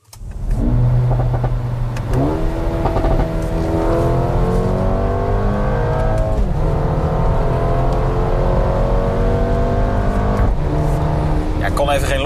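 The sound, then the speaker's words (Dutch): A Mercedes-AMG A35's engine revs hard and climbs through the gears during a test drive, loud, with a few sharp exhaust pops cracking out at intervals over the steady rising drone. “Wouter test de Mercedes AMG A35. En we beginnen met lekker wat plofjes, sexy plofjes uit die uitlaat.”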